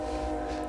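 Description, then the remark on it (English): A passing train gives off a steady, sustained horn-like tone with a low rumble beneath it, fairly loud and unbroken, with no voices over it. “Sorry about the train again.”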